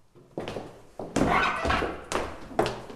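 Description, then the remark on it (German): Old wooden stairs in an old house in Schwabing creak and squeal under footsteps, a series of loud, drawn-out groans and thuds in close succession, with no talking. “Die Treppe hat jetzt wirklich geklungen wie jemand, der furchtbar schreit, wie der Hund, dem er auf den Schwanz tritt.”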